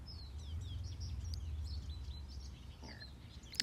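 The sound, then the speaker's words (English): Birds chirp and tweet steadily, a string of short high calls over a low outdoor rumble, with no voices present. “You can hear birds, or maybe the sound of water.”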